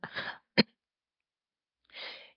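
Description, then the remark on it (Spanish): A breathy cough followed by a sharp second burst, then a pause and a final raspy exhale-like cough; no talking, just a person with allergies coughing. “Hoy no pedí excusas y estoy tosiendo, así que me excusan.”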